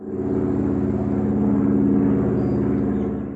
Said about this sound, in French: Oh zut Un autre avion atterrit.